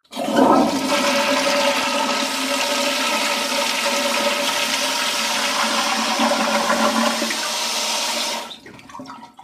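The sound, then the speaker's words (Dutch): A toilet flushes, a loud, steady rush of water pouring for about eight seconds before it cuts off abruptly into quiet. No voices are heard. “Ik moet even naar de pot.”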